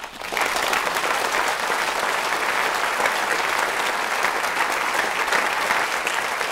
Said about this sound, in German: Applaus